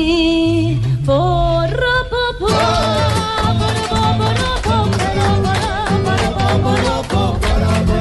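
A guitar plays loudly and continuously, opening with a few sustained, sliding notes before breaking into brisk, rhythmic strumming with a full, bright sound over a steady beat.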